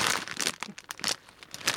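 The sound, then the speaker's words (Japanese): Plastic packaging of a Beer Kaki snack of rice crackers and peanuts, holding many individually wrapped packs, crinkles and rustles in a series of bright, crackly bursts, with a brief tearing sound as the bag is pulled open; no one speaks. “個包装にいっぱい入ってますわー”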